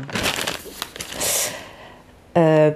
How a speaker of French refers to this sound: Ensuite, ce que vous entendez là, c'est ma petite feuille.